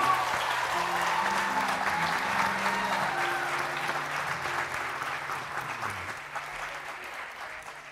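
A large church audience applauds steadily in celebration, a dense wash of clapping that stays loud throughout, with low sustained organ or keyboard notes held underneath before the applause gradually thins toward the end.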